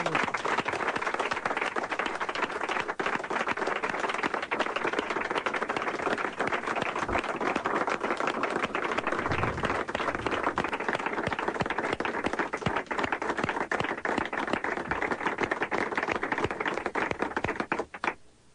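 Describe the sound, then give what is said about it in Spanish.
Sustained applause from an audience for everyone connected with the radio station Radioactivo as it ends its broadcasts, a dense steady wash of many hands clapping at an even loudness for nearly twenty seconds before trailing off at the end, with no voices standing out. “a todas las personas que en algún momento tuvieron alguna relación con radioactivo, ya sea personas que trabajaban aquí, personas que desde el exterior la apoyaron, escuchándola, colaborando, trabajando, y un aplauso para todos, ¿no?”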